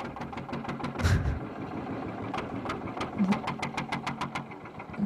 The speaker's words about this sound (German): Schöner Oldtimer-Traktoren-Sound.